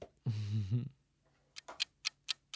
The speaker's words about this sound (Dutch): Zet hem aan. de welbekende timer. Ja, iedereen, iedereen weet het. Dan gaat hij tik, tik, tik. Nou, daar gaat hij.